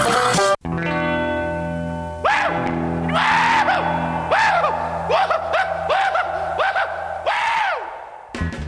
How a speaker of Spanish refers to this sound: Así se empieza un episodio de Los Bastardos con Suerte. Emocionado y gritando.